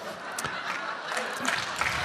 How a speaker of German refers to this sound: Das da jetzt klatscht. Jetzt klatscht der ganze Saal. Jetzt klatscht der ganze Saal.